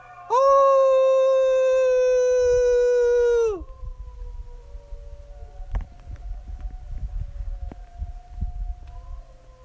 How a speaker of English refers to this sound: So I pressed record and wanted to share it. It's funny because it happened right after that global meditation thing had basically ended, and it's just about dinner time. And I heard the howling and came out to join in.